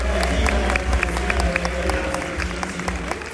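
A crowd applauds steadily, a dense patter of many hands clapping at once, with a few sharp louder claps standing out and a low murmur of voices beneath, no pauses throughout.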